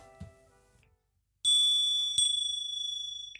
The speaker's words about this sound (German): Wolltest du nochmal klingeln?